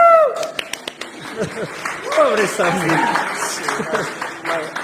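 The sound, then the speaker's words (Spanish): Audience applause with scattered sharp claps mixed into a steady crowd roar, with voices and what sound like cheers or laughter running over it throughout. “Y ahora sí, prepárenos de aplausos.”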